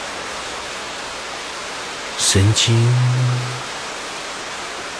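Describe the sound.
A steady, even rush of falling water from a waterfall, with dripping water, runs unbroken for the whole clip during a seated meditation, with a brief spoken word over it midway.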